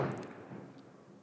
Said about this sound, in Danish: Jeg ved ikke, om man kunne høre det derude, men der er i hvert fald noget øh, fyrværkeri, der bliver skudt af allerede nu.